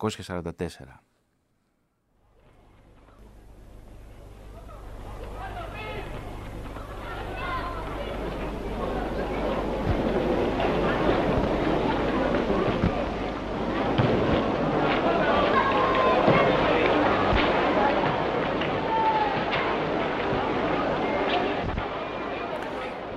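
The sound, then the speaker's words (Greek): A large crowd of football fans roars and murmurs continuously after a brief pause, a dense swell of many voices with scattered shouts and sharp bangs, rising in intensity toward the middle and staying loud throughout, at a football match played on 22 August 1944 in the Theresienstadt ghetto, as recorded in Kurt Gerron's film. “Και τώρα νομίζω ότι ήρθε η ώρα να ακούσουμε του ήχου, τι ιαχέ των φιλάθρων από εκείνο τον αγώνα ποδοσφαίρου που δόθηκε τον Αύγουστο του 1944.”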